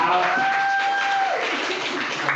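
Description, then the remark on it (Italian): An audience claps steadily for a couple of seconds, a dense, even wash of applause, with a thin, sustained whistle-like tone ringing over the start. “Un applauso al podcast Queer Scream.”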